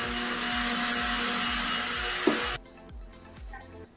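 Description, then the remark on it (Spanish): A blender-like motor whirs loudly and steadily with a broad rushing hiss, then cuts off abruptly, leaving a quieter rumbling background with faint voices. “¿Qué es eso? Tenés mapa la licuadora?”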